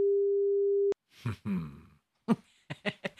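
A steady telephone ringing tone plays once for about a second while calling someone's phone and stops abruptly with a click. Several loud coughs and throat-clearing sounds follow.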